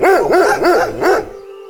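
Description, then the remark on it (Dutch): A dog barks four times in quick, even succession, loud, with no one talking; a faint lingering tone remains after the last bark. “Normaal gezien veel mensen op straat. Kinderwagens, uitgelaten honden,”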